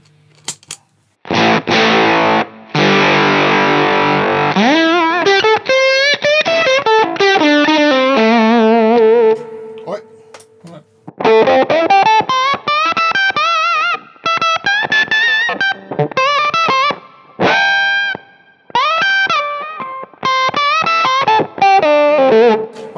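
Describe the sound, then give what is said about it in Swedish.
An electric guitar played through an overdrive pedal plays alone and loud, starting with a thick sustained chord, then sliding, bending lead lines, and ending in short choppy stabs separated by brief gaps. “man har väldigt mycket, om man jämför det här med utan overdriven då? Får man lite mer bärighet?”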